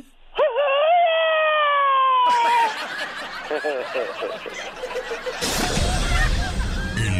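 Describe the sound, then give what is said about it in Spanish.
A loud, electronically altered scream of an old man holds a wavering, howl-like pitch for about two seconds, sliding slowly downward, then breaks into a jumble of chattering voices, snickering laughter and a burst of harsh noise. “Este es un grito alterado del viejón.”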